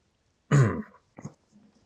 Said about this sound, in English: Hmm, let me just uh, try to remove the froggy from your throat. Wet my whistle.